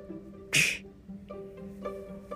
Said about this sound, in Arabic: مثلا خلينا نقول انت قاعد ويا شخص وهذا الشخص عطس